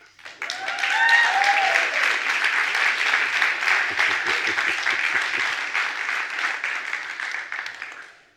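A crowd breaks into sustained applause, dense overlapping clapping that swells quickly, holds steady for several seconds with a few cheers or voices mixed in, then tapers off.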